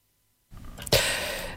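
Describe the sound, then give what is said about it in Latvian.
A phone caller's line drops out: half a second of dead silence, then the line cuts back in with rough, crackly noise, a sharp burst of static, and a steady hiss. No one speaks. “Halo, jūs pazudāt un tagad jūs atkal dzirdam.”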